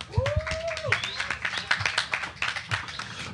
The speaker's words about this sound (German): Kleiner Applaus für Mr. Tone.